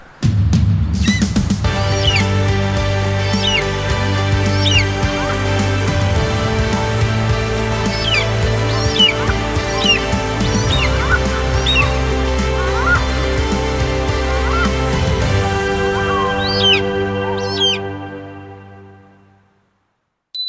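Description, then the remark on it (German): An eagle gives repeated shrill, high-pitched cries at irregular intervals over a steady, sustained low musical drone, with everything fading out near the end. “Und, weißt du's schon, welches Tier suchen wir? Ich sag es dir. Es ist der Adler.”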